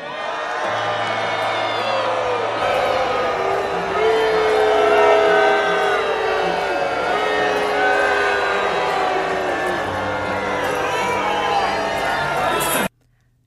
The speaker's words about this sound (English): Before Trump took the stage, South Carolina Senator Lindsey Graham was mercilessly booed by the crowd of Republicans from his own state.